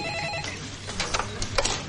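A telephone rings with a bright, trilling electronic tone, steady harmonic bands giving way to a few sharp bursts. No one speaks over it.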